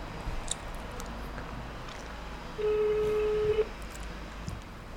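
A single steady ringback tone sounds for about a second over a faint background hiss, the familiar beep of an outgoing phone call waiting to be answered.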